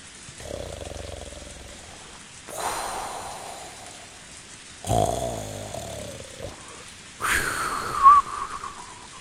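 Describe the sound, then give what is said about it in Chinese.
Snoring in a slow rhythm: about four long, rasping breaths, low rumbling draws alternating with airy, hissing exhales, with no talking. “狗在做梦的小孩身上，小孩在打鼾的老奶奶身上。”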